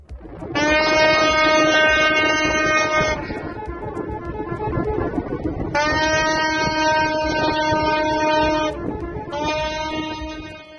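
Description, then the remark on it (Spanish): Loud, deep horns from hundreds of waiting ships sound in three long blasts, each held for several seconds with short gaps between, over a steady low rumble. The ships are celebrating news of the end of the canal crisis in Egypt after the rescue of a Panamanian-flagged vessel. No one speaks. “Cientos de barcos que estaban a la espera celebraron la noticia con estos toques de bocina.”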